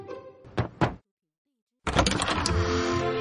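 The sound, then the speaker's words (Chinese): Two sharp knocks on a door in quick succession over a low background hum, then a second of silence before a loud, dense wash of sound starts up. “双胞胎兄弟杜马斯和曼埃尔正焦急的等着包裹，突然传来敲门声。”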